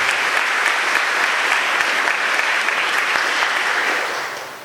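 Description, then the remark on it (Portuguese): Sustained audience applause, a dense wash of many hands clapping at a steady loud level before tapering off slightly at the end, with no voices standing out; a parish audience applauding its patron saint in thanks during a liturgy. “É por isso que, mais uma vez, ao nosso padroeiro queremos dar uma salva de palmas, como agradecimento.”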